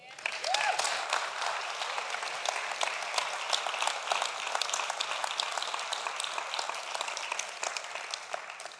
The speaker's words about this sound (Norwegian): Skal vi gi en god applaus?